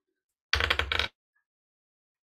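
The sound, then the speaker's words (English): A short burst of rapid clattering clicks as dice are rolled on a table during a tabletop role-playing game, lasting about half a second with a brief break, then quiet; one die falls on the floor. “And that fell on the floor. Roll it again.”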